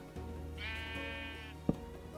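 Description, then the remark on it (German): A single sheep bleat in a video game as the sheep is being tied up, a clear wavering cry lasting about a second, over a steady low hum, followed by a short sharp click near the end. “Jetzt tue ich da das Schaf festbinden.”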